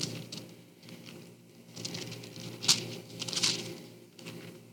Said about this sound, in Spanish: Todavía se oyen hojas, o sea que hay gente que todavía trae la Biblia.